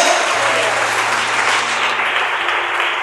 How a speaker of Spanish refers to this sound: Un aplauso aquí porque Él vive.